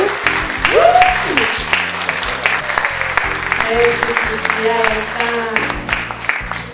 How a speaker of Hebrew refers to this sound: עשו להם כפיים